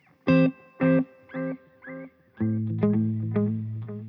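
A guitar played through an effects pedal's first preset, a simple delay: four plucked notes in a descending rhythm, then a sustained chord with a trailing delay whose pitch wavers and modulates as it fades, no voices.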